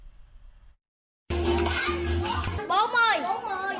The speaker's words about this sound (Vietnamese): Đó là không khí vui chơi nhộn nhịp của các em thiếu nhi tại mái ấm Đức Quang, chùa Giảng Đức.